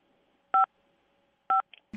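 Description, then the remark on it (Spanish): Two crisp telephone keypad dialing tones pressed on a phone, short dual-pitched beeps about a second apart, loud, followed by a faint brief blip and a low thump at the end. “Activa la calentada navideña, por favor, desde tu teléfono.”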